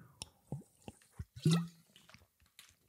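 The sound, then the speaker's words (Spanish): Sipping and gulping of water in Estonia, taken as a dramatic pause: a few wet slurps and clicks, then a louder swallow with a gurgling squish, followed by small mouth sounds. Quiet, no speech. “como hago yo aquí en Estonia, agua embotellada de cristal para que los microplásticos no te jodan las hormonas y pausa dramática para beber.”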